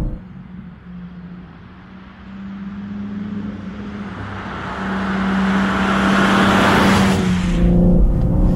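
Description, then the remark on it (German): A BMW M3 Touring engine, in a car weighing nearly 1.9 tonnes, drones steadily while cornering, building in loudness and pitch as it accelerates, with a brief drop near the end like a gear change before the revs climb again. “Und auch das kann der M3 Touring richtig gut, trotz fast 1,9 Tonnen Eigengewicht.”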